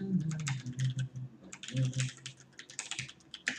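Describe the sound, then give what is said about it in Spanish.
Rapid keyboard typing and mouse clicks patter in quick irregular bursts, with a faint low hum underneath and no voices, as someone works in XSplit software on a computer. “Clic.”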